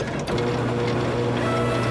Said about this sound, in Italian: Cosa? Cosa? Aspetta, prende il foglio. Sisma mi manchi, è eh, Carlotta. Che... Eh, mi, ha mandato, mi ha mandato un fax.